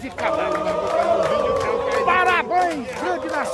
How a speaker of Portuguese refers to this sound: Que multidão é essa, menino? É a multidão e os carros passando e buzinando.